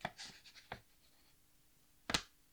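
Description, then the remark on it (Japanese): Japanese 1000-yen and 5000-yen paper banknotes rustle and crinkle as they are taken out alternately and shown to a Microsoft banknote-recognition feature, with a few soft, brief swishes early on and a sharper crisp crackle near the end, with no one talking. “今ね、1000円と5000円をちょっと交互に出したりしてたんですが。”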